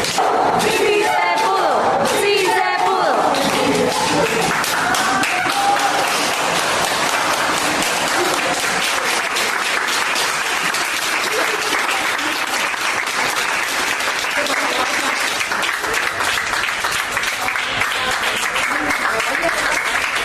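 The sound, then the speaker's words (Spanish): Hospital staff give loud, sustained applause as a discharged woman patient leaves the hospital, a dense steady clatter of many hands clapping for the full stretch, with scattered cheers and voices rising over it, especially near the start. “pero bueno, salió y así es como se despidieron de ella en el, en el hospital.”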